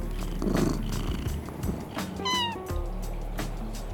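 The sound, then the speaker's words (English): A cat named Croak gives a single clear meow partway through at Treehouse's Cat Cafe, set against a steady low background rumble. “in Treehouse's Cat Cafe, which, of course, is a great place to get interrupted by cats.”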